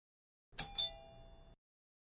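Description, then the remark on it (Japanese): An intercom doorbell sounds a two-note ding-dong chime, the second tone quickly following the first, ringing clearly and briefly on its own before cutting off abruptly. “インターホンが鳴った。”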